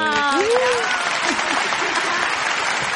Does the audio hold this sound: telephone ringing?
no